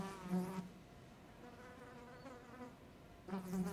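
A fly buzzes steadily under the ceiling in the middle of a room, flying an endless star-shaped path, its drone swelling louder as it passes at the start and again at the end, fainter and wavering in between. No voices.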